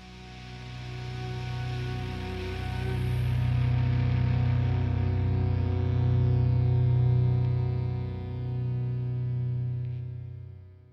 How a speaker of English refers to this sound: I'm pretty sure there's a little like synth kind of dragging out